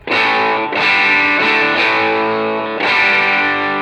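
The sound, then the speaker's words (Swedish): Distorted electric guitar playing sustained chords through an effects pedal with its volume lowered to the 9 o'clock position, with about four strummed attacks ringing out in a steady rhythm, fairly loud with no talking. “Fast om jag sänker volymen till klockan 9, mm. eh, kan vi testa.”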